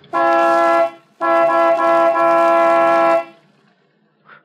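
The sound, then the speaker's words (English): A vehicle horn on a highway honks twice at a figure standing in the middle of the road, a short blast followed by a longer sustained one, loud and steady in pitch with a brassy, buzzing tone, and no one speaking. “All right. I'll give it the horn.”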